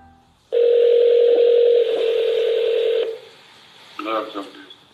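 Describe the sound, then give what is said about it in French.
A loud, steady telephone tone hums for about two and a half seconds, dipping slightly partway through, then cuts off and a brief burst of voice follows, during a phone call in which Navalny poses as an FSB agent. “Navalny se fait passer pour un agent du FSB au téléphone.”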